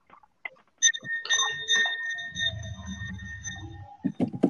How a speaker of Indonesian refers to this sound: Yuk yang jualan es jangan dulu ya maaf ya guys gue lagi makan di bawah soalnya jadi kedengeran kenapa maksudnya beneran ada yang jualan es ada yang teng teng gitu kan bunyi iya, gak tau itu es atau apa barusan kalian denger gak sih